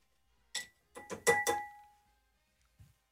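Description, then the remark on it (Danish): Scraping of a head of hair being shaved clean, live, close to the microphone: a quick rasp, then a cluster of three or four louder strokes with a faint metallic ring, and one soft scrape after a pause. “Men det er alligevel ikke tit, man øh, bliver, bliver glatbeberet, live er.”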